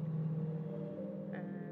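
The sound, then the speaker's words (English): A low, steady rumble of far-off car traffic drones on without a break, faint and continuous, with a brief higher tone appearing near the end. “I can hear, uh, I can hear cars, but like very far away”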